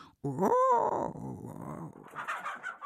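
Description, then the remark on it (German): A hen fights off a young, not yet grown rooster that tried to mate with her, with loud, harsh squawks and screeches tumbling over each other for a few seconds, then trailing into shorter agitated cries. “Also hier wurde jetzt der Hahn von der Henne verdroschen.”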